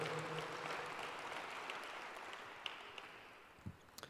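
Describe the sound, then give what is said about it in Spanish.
Steady applause from an audience, a dense wash of many hands clapping at an even loudness for several seconds, with a few sharper individual claps standing out near the end. “Vamos a Hebreos eso es, dale un fuerte aplauso.”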